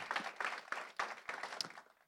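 A short burst of audience applause for a youth worker from the organisation Aspire in Portadown before he speaks, many hands clapping together in a dense, crackling wash that holds steady for about two seconds before thinning out. No voices are heard.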